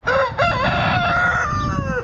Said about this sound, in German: War das jetzt ein Hahn? Ja, wir probieren ja verschiedene Wecker aus.